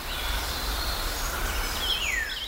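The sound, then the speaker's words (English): Calm outdoor ambience at Green Mountain Farm in North Carolina, one of the state's most peaceful spots, with a steady low rumble and soft hiss, while a few thin, high bird chirps and a descending whistle drift in. “This is a sound of Green Mountain Farm”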